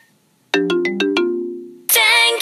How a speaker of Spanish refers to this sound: Ahora, escuchemos una canción de Tailandia. Al género se le llama Thai Pop.